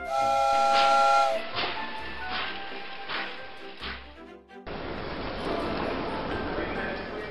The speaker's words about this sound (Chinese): 随后啊，火车司机启动列车驶进月台。